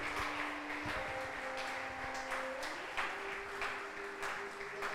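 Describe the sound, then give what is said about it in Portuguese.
An audience applauds God in praise, steadily, a dense wash of many hands clapping at an even loudness, with a few sustained organ or keyboard tones humming underneath. “Aplauda ele bem forte.”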